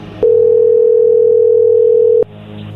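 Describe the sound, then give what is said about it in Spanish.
A loud, steady telephone dial tone, as a call is redialed after the other side hung up, holds a single mid-low pitch for about two seconds, starting and stopping abruptly with faint clicks over quiet background hum. “A ver, oye, ya colgó, deja de decir lo mismo, márcale de nuevo.”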